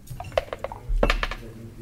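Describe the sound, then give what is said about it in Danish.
A die rattles and clatters as it is thrown from a dice cup, a scatter of sharp, bright clicks followed by a louder burst of knocks with a soft low thump as it settles. “vil du ikke øh, starte med at kaste en terning?”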